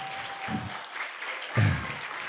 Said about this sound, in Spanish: Bueno, yo creo que se merece un aplauso, ¿no? Creo que sí, ¿no? Digo yo.